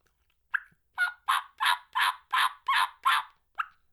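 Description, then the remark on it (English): A series of about eight rhythmic turkey yelps played on a hunting turkey call, evenly spaced and fairly loud, rising then trailing off in a clear run with no talking. “I mean, I can yelp great on this call,”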